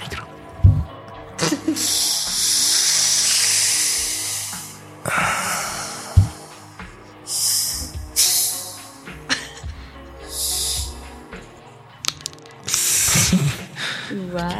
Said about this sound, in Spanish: Estaba abriendo la botella.